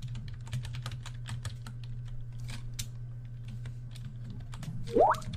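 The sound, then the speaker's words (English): Rapid, irregular clicking of keys on a computer keyboard over a steady low electrical hum, with a short rising electronic chirp near the end. “Hey, stop typing so you can hear this message.”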